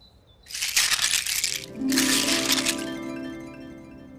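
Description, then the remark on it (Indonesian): Two bursts of bright, clattering rattles as someone passes through a treehouse doorway curtain homemade from seashells collected on the beach, followed by a soft lingering ring that fades out. “Ayesha memasang tirai yang ia bikin sendiri dari kerang yang ia kumpulkan di pantai”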